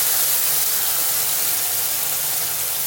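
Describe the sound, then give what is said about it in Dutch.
Sambal being fried in a pan with a generous splash of hot sunflower oil sizzles loudly, a dense, steady crackling hiss unbroken for the whole stretch, with no voices over it. “We zetten een pan met een flinke scheut olie op en gaan de sambal aanbakken.”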